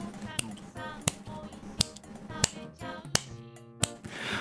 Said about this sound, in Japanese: 指パッチンできるようになった指パッチンずっとやりたくて、あの、ずっと練習してたらね、ちょっとできるようになってきた、少しずつ。